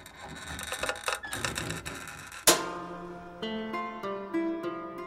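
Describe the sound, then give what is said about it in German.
A wooden printing press of the kind Johannes Gutenberg used works with dense mechanical clattering and creaking for a couple of seconds, ending in one sharp, loud thump, followed by sustained ringing tones. “Genauso wie den Trick, das Papier leicht anzufeuchten, bevor es in die hölzerne Druckerpresse geschoben wird.”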